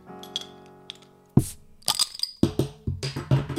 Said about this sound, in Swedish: Jag är såhär, ska jag knäcka en öl? Ja. Ska jag nu? Do it, do it, ja. Fuck. Gör det bara. Okej, ASMR. ASMR.